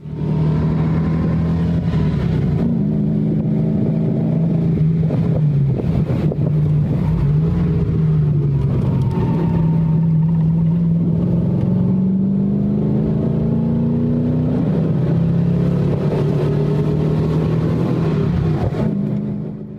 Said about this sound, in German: ich das Glück, in einem BMW 507 der Serie 2 einen halben Tag lang über mehrere große Alpenpässe mitfahren zu können. Und deshalb können wir uns jetzt gemeinsam kurz mal anhören, wie es in einem 507 so klingt, wenn er ziemlich engagiert gefahren wird.